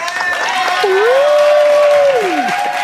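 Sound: applause and ovation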